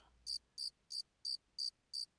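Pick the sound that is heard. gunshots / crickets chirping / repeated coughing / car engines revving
crickets chirping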